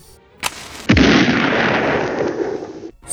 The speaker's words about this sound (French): la violence de l'explosion, le toit de son véhicule garé sur un parking a fini dans le jardin d'une habitation à une centaine de mètres.